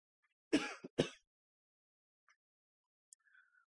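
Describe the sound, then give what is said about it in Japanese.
A person clears their throat with two quick coughing bursts, loud and harsh, followed by faint small noises and quiet rustling in otherwise silence. “咳払いというと咳ですね、これはね。喉の痛みはないんですけどもね、なんか咳が出るっていうか、なんかね、咳しないと気持ち悪いみたいな感じで”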